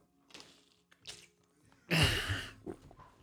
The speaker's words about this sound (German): Jetzt nehme ich gleich meinen Schluck Wasser.